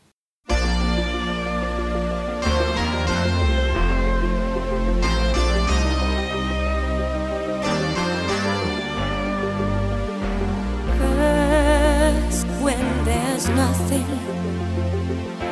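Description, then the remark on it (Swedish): A smooth 1983 pop song with vocals plays loud and steady throughout, with full band backing and a sustained, wavering melodic line near the end that sounds like a singing voice. “Så att nu är det ett, igen en lätt identifierad låt.”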